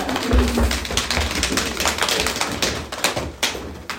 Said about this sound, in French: Donc, moi, ce que je voulais vous demander maintenant, c'est de vous mettre de de, bouger un peu, de sautiller comme ça, de vous tapoter un peu du corps comme ça.